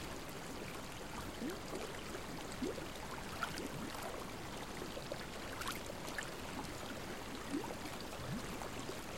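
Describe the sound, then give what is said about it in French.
Small waves lap gently and steadily against rock, a continuous watery wash broken by soft, irregular splashes and gurgles, even in volume, with no voices. “Le clapotis des petites vagues qui rencontrent la roche.”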